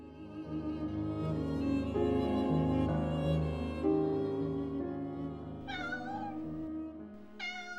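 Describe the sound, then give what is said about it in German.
A cat meows twice near the end, short clear calls a couple of seconds apart, heard over a steady bed of soft background music. “Kaum hat Margot Friedländer auf einem Stuhl vor ihrer Bücherwand Platz genommen, taucht aus einer Ecke plötzlich eine Katze auf.”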